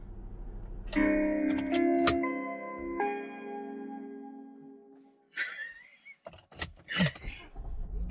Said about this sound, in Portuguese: Começando no começo, parece aquela musiquinha do Windows, é a de abertura e a de encerramento. Quando você desliga o carro